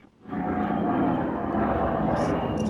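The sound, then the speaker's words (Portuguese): A loud airplane roar swells in within a fraction of a second and holds steady, a broad engine rumble with a droning tonal hum, as a plane lands. “o avião pousar e a gente.”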